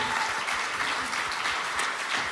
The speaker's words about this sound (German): Gebt den drei nochmal einen richtigen Applaus für die ganz, ganz starken Worte